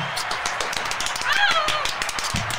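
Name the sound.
hand clapping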